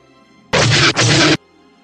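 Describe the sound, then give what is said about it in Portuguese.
Two harsh, loud sci-fi blaster hits, proton shots fired from a TIE Fighter, strike a spaceship back to back, each a dense crackling burst. A faint hum sits underneath, with no talking. “os tiros de prótons vindo do TIE Fighter, a carga iônica dele atinge a tua nave e ela começa também a soltar fumaça, mas não como a dele, né?”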